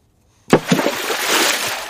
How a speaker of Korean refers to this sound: 어우, 물에 물에다 뭘 던진 거예요 지금? 풍덩. 어휴, 큰 돌멩이를 던졌나요? 풍덩 소리입니다. 네. 시원한 소리. 어휴, 아 그만 던져요.